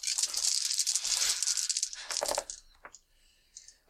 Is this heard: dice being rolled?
yes